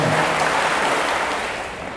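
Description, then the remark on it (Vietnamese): A sustained wash of crowd clapping at a Buddhist gathering in Bình Xuân, celebrating new vitality, dense and steady at fairly high loudness for about two seconds, tapering slightly at the end, with no voices over it. “nhân dịp này thì ờ, mong tất cả dân cho một tràng vỗ tay để ờ, mừng sức sống mới”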